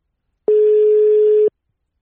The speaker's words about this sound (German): Jetzt klingelt's. Überragend.